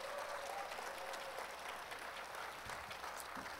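A crowd applauds the Shine Children's Choir after their performance, a dense wash of many hands clapping at an even, fairly loud level for a few seconds without any talking.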